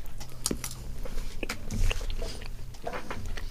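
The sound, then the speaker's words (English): Crunchy biting and chewing into chocolate with smashed-up chunks of whole roasted almonds, a few sharp cracks followed by steady munching, fairly quiet with no talking. “that have been whole roasted. You can see like lumps in the bottom.”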